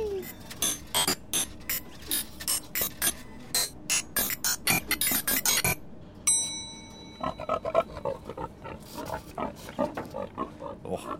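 A mechanical machine, just started up, whirs and clatters with rapid, rhythmic ratcheting clicks of turning gears, broken midway by a short ringing ding before the grinding clicks resume, fairly loud.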